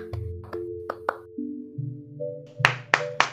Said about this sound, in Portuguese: Cara, Brooklyn Nine-Nine é o nome da fera. Palmas.